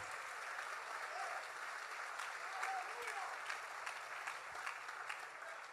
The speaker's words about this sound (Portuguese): Aplauda Jesus, Ele é maravilhoso.